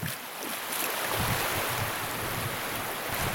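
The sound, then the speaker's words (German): Gentle waves lap against a sandy shore at the water's edge of a coast in a steady, soft wash of water, with small rhythmic surges rising and falling. No voices. “Schließlich erreichen wir die Wasserkante, dort, wo die Wellen sanft gegen den Sand brannten.”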